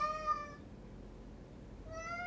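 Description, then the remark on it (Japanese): A pet cat at home in a Japanese-style tatami room meows twice, once at the start and again near the end, each a drawn-out harmonic call over low background noise and no talking. “にゃんちゃんのこといじめないのダメだよ”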